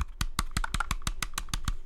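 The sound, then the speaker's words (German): A quick, steady series of about a dozen crisp clacks from large, stabilized mechanical keyboard keys being pressed, each sharp and clean with no rattle and no voices. “Ähm, also man hört, auch, man hört die auch nicht rattlen, wenn ich da drauf drücke.”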